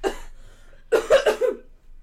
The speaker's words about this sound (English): oh, I've got a cough.